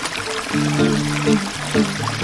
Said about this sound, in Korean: 자, 오늘 백담사, 백담사. 아, 시냇물 소리.